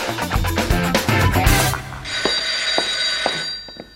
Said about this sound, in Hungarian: Halló? Halló, jó reggelt kívánok! Telefonébresztő, tessék felébredni! Tessék, tessék felébredni!